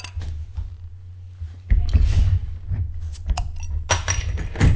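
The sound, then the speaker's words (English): A bottle is cracked open: clinking and handling noises, then a sudden burst of hiss as the cap comes off, followed by more glassy clinks and fumbling. No one speaks. “Crack this bad boy open.”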